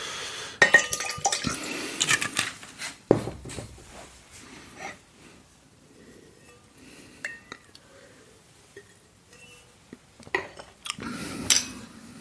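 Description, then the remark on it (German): A drinking glass is cleared out: glass clinks and clatters, with bursts of rattling and a splash of water, then quieter handling before a final cluster of clinks; a faint murmur sits underneath. “Ja, ich muss noch mal eben den, ich muss mal eben das äh, Glas hier klären.”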